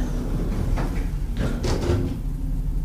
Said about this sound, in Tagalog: Tong! Ayan yung tunog pagbukas ng elevator sa aking harapan na nagpabalik sa aking katinuan.